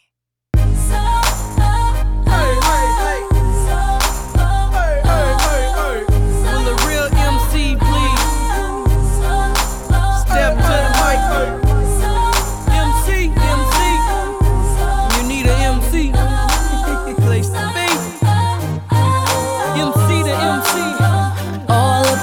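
A pop song's instrumental intro plays loudly and steadily on a radio broadcast, with a pulsing, heavy bass line under bright layered synths; the deep bass briefly thins out near the end before the groove carries on.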